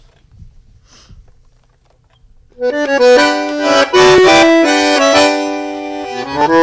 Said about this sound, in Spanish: la tenemos con un bandoneón en la mano, así que si se puede, nos gustaría escucharte. bueno, ahora voy a tocar